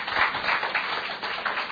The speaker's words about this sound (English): I want to thank everyone from, for coming and thank our panelists. So how about a round of applause for them? Thank you.